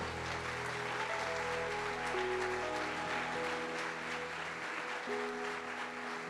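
A crowd claps steadily for several seconds, a dense, even wash of applause layered over sustained musical chords from instruments playing underneath.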